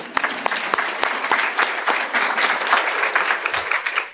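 A crowd applauds a library becoming, in 2019, the largest library in the country to go fine-free, many hands clapping steadily in a dense, crackling wash with sharper individual claps popping out, holding fairly loud and even from start to finish without any voices.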